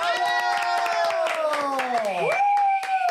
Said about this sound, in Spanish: Así que un aplauso para...